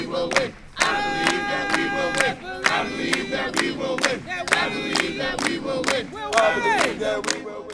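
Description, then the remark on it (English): A large protest crowd chants in unison outside the Minnesota governor's mansion, loud rhythmic shouted calls repeating steadily, with voices overlapping and occasional cheers rising over the continuous roar of the group. “Dayton could hear the calls from inside.”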